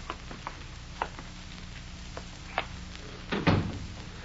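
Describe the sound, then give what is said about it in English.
A few light clicks and taps, then a door shuts with a solid thud followed by a short rumble. No one speaks. “Quit drinking that stuff and close that door.”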